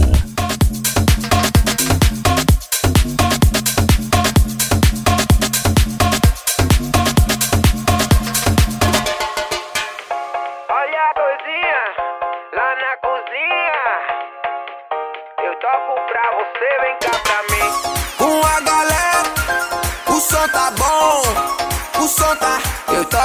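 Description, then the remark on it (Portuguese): An electronic dance track with a heavy, pounding beat drops into a beatless breakdown where a vocal melody sung in Portuguese by a singer from Bahia glides over synths, then the full loud groove returns. “Um baiano cantando música eletrônica e de qualidade, produzida por um dos melhores produtores de música música eletrônica atualmente.”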